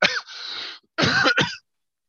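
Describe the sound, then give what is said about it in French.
A loud cough followed by a short rasping throat clear and a second burst, three harsh bursts in about two seconds with no talking, then silence. “Excusez-moi, j'ai envie de tousser.”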